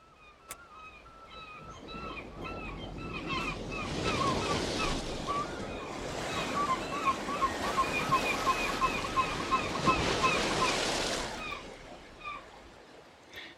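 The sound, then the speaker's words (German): Stormy surf roars along the North Sea coast with gusting wind, a dense, loud wash of breaking waves that swells up after a few seconds, holds steady, then eases off near the end. “Es ist stürmisch an der Küste.”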